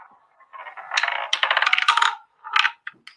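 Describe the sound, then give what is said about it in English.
A spinning selection wheel, used to pick football midfielders, ticks in a fast, clicky rattle, then slows to a few separate ticks as it stops. It is fairly loud, with no voices. “it's landed on Raheem Sterling”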